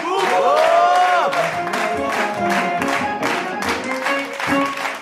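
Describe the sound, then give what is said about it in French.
An audience at a show yells together at full volume, many voices overlapping in a loud, sustained roar with rising and falling surges, continuous for several seconds. “Donc pour ceux en France qui ne me connaissaient pas, vous allez crier très fort.”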